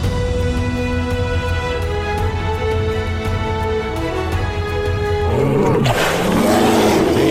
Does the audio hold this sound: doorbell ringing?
no